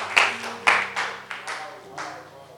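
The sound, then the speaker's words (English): An audience claps hands for Jesus and stands up at the close of a sermon, in a loose, uneven rhythm, about six sharp bright claps over a few seconds, the first ones loudest, with a low sustained tone humming underneath. “Clap your hands together for Jesus and stand to your feet.”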